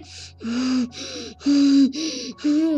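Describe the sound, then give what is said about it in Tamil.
A voice imitates the heavy, forceful breathing of a giant: five loud, rasping gasps in a steady rhythm, each with a rough, strained tone, with no speech. “அந்த ராட்சசன் பேர் தான் கேப் கேபுங்கிறவன் ஒரு பயங்கரமான ராட்சசன் அவன் வந்து பெரிய நெகத்தோடையும் அந்த மூச்சு அந்த மூச்சு விடுற சத்தமே”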